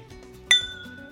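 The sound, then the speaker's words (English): A single bright glass clink rings out as cognac is swirled in a cognac snifter, its clear tones fading over a fraction of a second, with faint low rumbling before and after and no talking. “All right, let me swirl this around and let me say”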